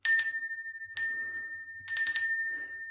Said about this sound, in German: was ich da habe, ist ein kleines Tischglöckchen, das früher dafür verwendet worden ist, alle Familienmitglieder an den Tisch zu holen, wenn das Mittagessen fertig war. Und zur Feier des Tages möchte ich dieses Tischglöckchen einmal läuten.